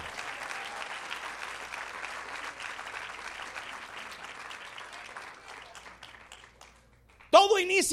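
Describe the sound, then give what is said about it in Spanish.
Steady applause from an audience, a dense crackle of many clapping hands that gradually tapers off, then a voice begins speaking loudly as the clapping fades out. “Vamos, aplauda más fuerte.”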